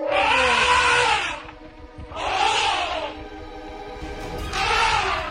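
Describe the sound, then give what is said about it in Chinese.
The largest elephant of a herd, standing between a calf and a lion, raises its trunk and roars loudly three times, each harsh, trumpeting blast lasting about a second and separated by short pauses, over a low rumbling background. “然后竖起了象鼻，发出了巨大的吼声。”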